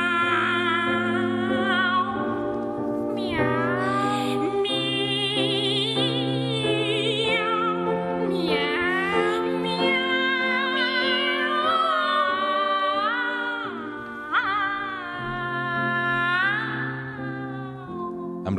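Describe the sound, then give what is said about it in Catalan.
Operatic singers imitate cat meows in sustained, sliding sung phrases over steady accompaniment, the voices swooping up and down, loud, continuing throughout. “L'altra és que són igual d'impredictibles que els gats. Miau.”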